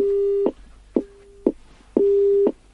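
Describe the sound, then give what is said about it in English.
A phone line busy signal during a problem with the phones: a steady mid-pitched tone pulsing on and off in regular half-second beeps, loud, with no voices. “I think we're having a problem there? with the phones.”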